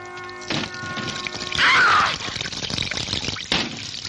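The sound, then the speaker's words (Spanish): Running water from a shower in a bathroom splashes steadily while a woman showers, a broad hiss that swells in the middle and carries a few thuds and knocks as a man opens the bathroom door. “Mientras, Daniel, recién despertado y aún bostezando, sube la escalera con una toalla en su hombro y abre decidido la puerta del baño donde Sara se da una ducha.”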